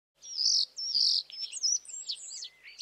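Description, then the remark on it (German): A common starling sings a lively, rambling song of chattering trills, squeaky whistles, clicking and gurgling notes with a peculiar grating timbre, fairly loud, with no talking over it. “Eine lebhaft drauf los sprudelnde Melodie aus kehlig trillernden, zwitschernden, klickenden und glucksenden Lauten, durchsetzt mit musikalischen Pfiffen und überlagert von einer eigenartig und charakteristisch knirschenden Klangfarbe.”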